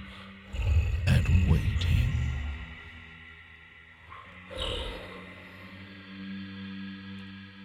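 A deep, rumbling monster roar bursts out loudly for a couple of seconds, followed by a shorter growl, then fades into a low droning ambience.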